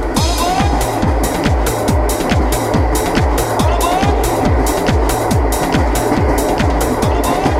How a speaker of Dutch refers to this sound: Ja, het geluid dat je hier hoort, het geluid wat je, in, als dat je hoort als je in de nachttrein slaapt.